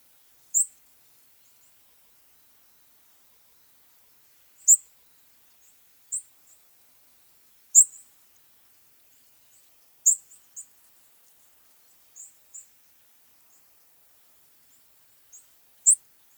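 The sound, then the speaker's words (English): A white-crowned sparrow gives thin, high-pitched call notes, around a dozen short tsip-like sounds spaced irregularly, some in quick pairs, heard alone against near silence. “They also have a high pitched call that sounds like this.”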